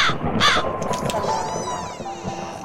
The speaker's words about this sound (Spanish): ¿Cuervo? Sí, el cuervo, sí.